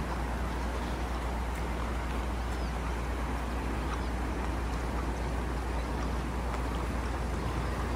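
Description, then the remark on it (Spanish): A steady, continuous rush of water flowing through an irrigation channel, with a deep low rumble underneath, holding constant throughout. Fairly loud, with no voices. “Sí, vamos a, este, abrir, eh, si se puede, para escuchar acá cómo va a pasar el agua.”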